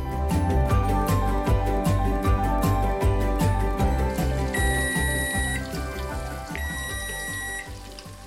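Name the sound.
kitchen timer going off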